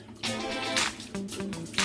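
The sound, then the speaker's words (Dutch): Splashy bursts of lukewarm water as hands scoop and rinse the face, three or four uneven splashes over a low steady hum of background tones. “Dat doe ik met een beetje lauw water. Lauw warm water.”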